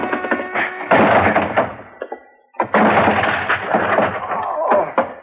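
A locked office door being forced open: two loud bursts of banging, cracking wood and rattling, separated by a brief quiet pause, with no talking.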